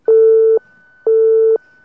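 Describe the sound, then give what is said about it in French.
A busy signal on a landline phone picked up to find the musical note A: two steady, loud electronic beeps of about half a second each, separated by equal pauses, with a faint continuous line hum underneath and no voices. “Bah, apparemment, c'est occupé là plutôt.”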